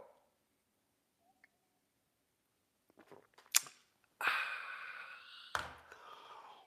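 After a quiet stretch, a few sharp clicks and a pop lead into loud, drawn-out slurping sips of a drink, with another abrupt click partway through. No one speaks.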